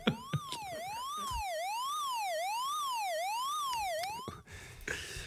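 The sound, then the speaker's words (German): A loud alarm siren wails, its pitch sweeping up and down in steady, roughly one-second cycles for about four seconds before cutting off abruptly. No one speaks. “Ah, ganz schöner Lappenalarm, ey.”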